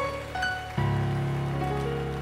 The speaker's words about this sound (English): Bible way, just clap. Every time you see somebody move, clap.